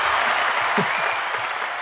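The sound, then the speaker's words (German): Steady, dense applause from a crowd, a continuous hiss of many hands clapping at once, with a brief faint cheer rising out of it partway through. No talking over it. “Ich glaube, du kannst mal einen Applaus raushauen.”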